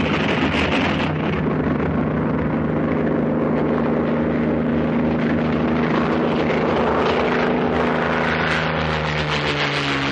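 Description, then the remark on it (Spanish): A small propeller plane drones loudly and steadily as it takes off from a landing strip, its engine pitch rising slowly as it throttles up, with wind rumble buffeting the microphone throughout. “Cuando llegan, la avioneta está despegando.”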